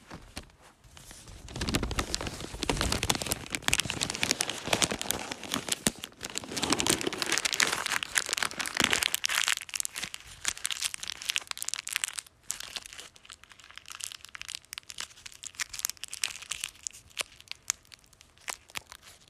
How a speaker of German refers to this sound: Ich hoffe, man hat es gehört. Nein. Dümmste Idee war, Ich habe einfach einen Kassenbon zerknittert.